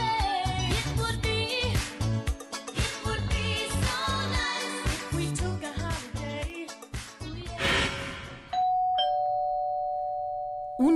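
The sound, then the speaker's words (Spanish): An electronic front doorbell plays a long, loud melodic chime tune, then gives way to a steady sustained electronic tone near the end. No one speaks. “El timbre de la puerta de una casa.”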